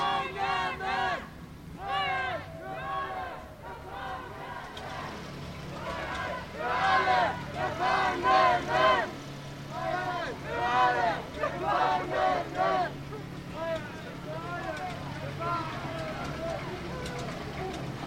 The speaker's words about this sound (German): Mit Sicherheit kann man uns ganz gut hören. Es geht weiter, wir ziehen mit dem Demozug entlang zum nordöstlichen Ende des Knasts.